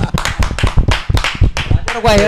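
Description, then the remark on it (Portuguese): Hands clap in a loose, uneven burst of sharp slaps, mixed in with lively talking voices, before one voice carries on alone at the end. “Uma salva de palmas nesse cara.”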